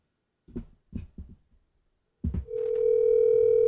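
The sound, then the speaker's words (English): A handful of short electronic blips sound in quick succession on an outgoing phone call, then a brief pause, and a steady, unbroken phone dial tone hums loudly through the end. “This will be the first time I've surprised Richard with a phone call.”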